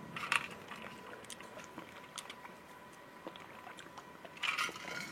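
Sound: drinking water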